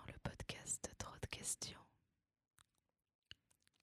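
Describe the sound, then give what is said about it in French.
Mouth noises: a rapid flurry of wet clicks, smacks and breathy hisses for about two seconds, then quiet with a few scattered faint clicks. “Ah non, pas les bruits de bouche, je t'en supplie.”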